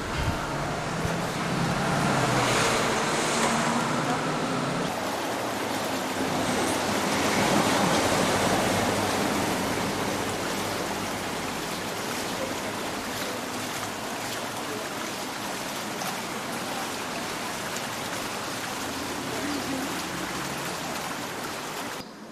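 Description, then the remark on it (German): A steady, loud rush of wind fills the whole recording outdoors, a broad hissing roar that swells slightly now and then without pausing, with no voices. “Haben wir auch Wind raus?”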